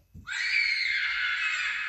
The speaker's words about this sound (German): Oh ja, jetzt kommen wir zu einer Cutscene. Jetzt hören wir ein Kind schreien.